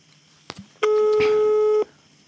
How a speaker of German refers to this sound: Das nächste oh, Freizeichen. klingelt.